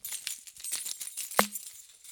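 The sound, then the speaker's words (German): A bunch of keys jangles in quick, irregular metallic clinks, with one sharper, ringing clank midway through. No one speaks. “Das, was eben noch meine Ketten waren, sind jetzt ein Schlüsselbund.”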